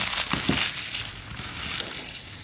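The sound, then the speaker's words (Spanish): Dry leaves crunch and rustle steadily, with a few sharper crackling steps near the start, like someone walking through a thick layer of brittle leaves. “De, pronto, entre las hojas secas”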